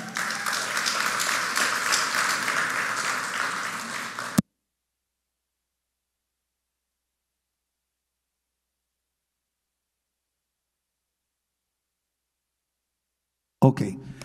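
An audience at a church talk bursts into steady applause for about four seconds for a helper who fixed the microphone setup, a dense wash of many hands clapping, then it cuts to silence before a brief sound returns at the very end.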